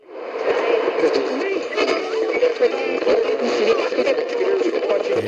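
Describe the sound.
A radio dial being turned through stations: continuous hiss and crackle with warbling whistles and brief garbled snatches of broadcast voices, steady and fairly loud.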